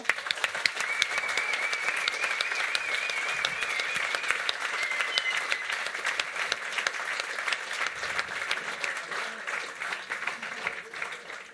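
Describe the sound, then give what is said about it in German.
Sustained applause from a live audience at a Kanderkultur event, for event manager Reto Grossen: a dense steady patter of many hands clapping at even loudness for over ten seconds, with occasional cheers or whistles mixed in. “Herzlichen Applaus dem Reto.”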